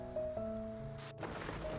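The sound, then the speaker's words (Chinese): Steady hiss of heavy rain from a late-night thunderstorm, with a sustained low droning tone beneath it and a brief louder surge partway through; no voices. “一阵雷雨声，又盖过了女孩细微的言语”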